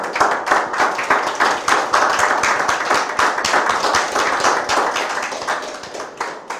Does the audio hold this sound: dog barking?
no